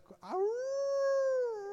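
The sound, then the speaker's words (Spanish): A person howls like a wolf: one long, steady howl that swoops up at the start and holds for over a second, loud, after a brief rough onset. “a ver, no, los escucho, mis lobos.”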